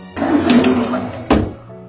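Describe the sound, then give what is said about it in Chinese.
A door swings shut as Uncle Bear, a story character, closes it after finding no one there. It closes with a low, drawn-out creak, followed by a single solid thunk, then a brief hum fading out. “熊叔叔把门关上。”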